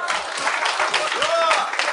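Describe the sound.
A steady wash of applause, dense and fairly loud throughout the two seconds, with voices calling out faintly over the clapping.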